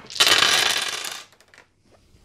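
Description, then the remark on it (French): Dice thrown onto the floor during a tabletop role-playing game: a burst of hard, clattering rattles, loud for about a second, then a few faint scattered clicks as they settle. “et on les fait tomber par terre.”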